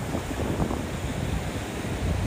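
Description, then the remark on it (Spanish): Ocean waves wash steadily onto the shore of a beach in Tulum under a full moon, in a continuous, rumbling surge, with gusty wind buffeting the microphone throughout. No voices are heard. “Escucho las olas, escuchen las olas conmigo.”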